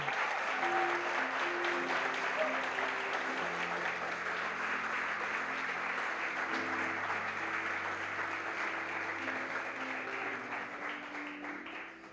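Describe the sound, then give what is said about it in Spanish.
An audience claps loudly and steadily for about twelve seconds, applauding the Lord Jesus, a dense wash of applause with low sustained tones beneath it, tapering slightly at the end. “Vamos a darle un aplauso fuerte al Señor aquí.”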